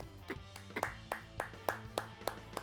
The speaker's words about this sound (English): So, story wise, round of applause for these two episodes.